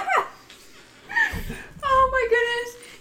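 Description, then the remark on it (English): A person imitates a dog with a short series of yappy, whiny barks, fairly loud, the voice rising into strained, pitched yelps over about three seconds. “I'll bark for it.”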